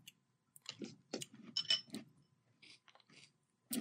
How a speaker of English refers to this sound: I'm sorry because my, my chew is kind of loud.